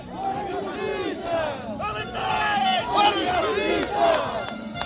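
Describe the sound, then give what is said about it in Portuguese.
A crowd of about 40 members of the Roma community in Serpa, Portugal, protesting against candidate André Ventura, shouting over one another: many overlapping raised voices form a dense, continuous clamor with sharp yells rising above the din. “O candidato André Ventura, que já tinha sido recebido com protestos no Chiado, em Lisboa, foi ali confrontado, em Serpa, com as críticas de cerca de 40 elementos da comunidade cigana.”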